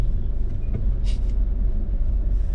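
Steady low rumble of a heavy road traffic jam with idling cars and buses, and a short sharp hiss of a bus air brake about midway.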